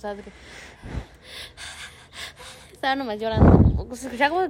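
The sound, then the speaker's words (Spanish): A person imitates panicked gasping for breath during an anxiety attack: a few sharp, breathy inhales, then a louder, strained voiced gasp that sounds like struggling to breathe. “no, es que no podía respirar. estaba respirando y me estaba neta, me estaba dando así.”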